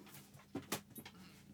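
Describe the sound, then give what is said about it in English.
A dog lying on a game board pants and shuffles, bumping the microphone, with a few short breathy bursts and soft rustling movement over about a second and a half. “this dog has chosen violence today.”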